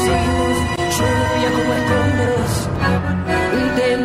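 A loud, dense orchestral tango passage with sustained harmonic layers, strong bass, and sharp rhythmic accents, playing continuously without any talking.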